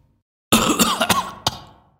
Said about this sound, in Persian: ناگهان گلویش گرفته و به صرفه افتاد